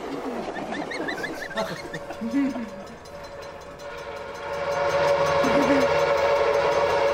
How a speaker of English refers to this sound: we are all on a train. Uh-huh. We're all riding along in a train.